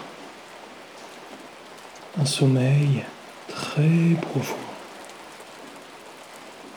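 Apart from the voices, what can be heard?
steady rain falling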